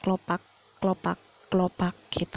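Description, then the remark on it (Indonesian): A voice mimics heavy dress-shoe footsteps heard at night, repeating a two-beat clopping syllable three times in a steady rhythm, clear, then adds a brief spoken word. “terus setelah itu pas uh, kita mau tidur lagi lagi-lagi ada suara kayak pantofel berat lagi kayak”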